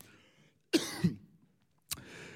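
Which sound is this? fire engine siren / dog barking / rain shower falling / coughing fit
coughing fit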